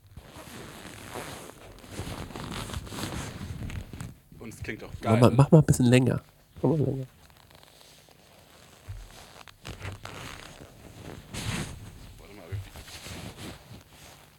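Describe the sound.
Creaking of leather lederhosen, with a microphone positioned at the crotch: a few short squeaky, rubbing bursts in a cluster midway, with people chatting before and after.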